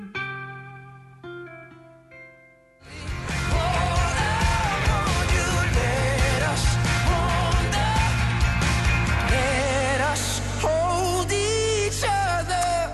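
A pop song plays on the radio station Mix Megapol during the morning show Äntligen morgon, with a sung lead vocal: a sparse, quiet melodic opening, then the full band crashes in loudly after a few seconds and keeps going steadily.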